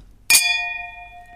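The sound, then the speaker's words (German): A single bright clink of wine glasses holding Riesling touching in a toast, followed by a clear ringing tone that slowly fades out. “Und äh, ja, den habe ich jetzt aber noch nicht im Glas gehabt und ja, lass uns doch mal anstoßen ja.”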